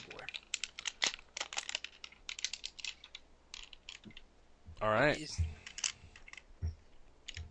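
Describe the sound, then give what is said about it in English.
Rapid, irregular plastic clicks and snaps from a transforming robot toy being twisted and handled, sounding a lot like typing, with a brief spoken remark and a sigh partway through. “Who's uh who's typing or something? I don't know. Oh, sorry, that's me. Okay furiously. Um, I'm pl- um, I'm playing with the transformer.”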